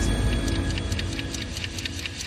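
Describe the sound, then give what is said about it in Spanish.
A clock ticks steadily, its quick, evenly spaced clicks running over a low, constant hum, with no voices present. “Tratamos de atraparlo en pequeños compartimientos llamados relojes”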